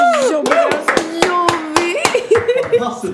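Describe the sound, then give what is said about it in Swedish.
Several sharp hand claps, roughly eight, land in a steady rhythm of brief applause while voices keep talking and exclaiming underneath, with a few looser claps toward the end. “Oh, alltså, kid, en applåd va?”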